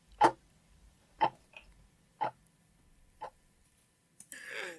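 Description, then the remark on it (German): A pocket watch ticks four times, slow and evenly spaced about a second apart, each tick crisp against a quiet background, followed by a short burst of soft noise at the end. “Ihr wird schwindlig und bevor sie ohnmächtig ist, hört sie noch einmal das Ticken der Taschenuhr.”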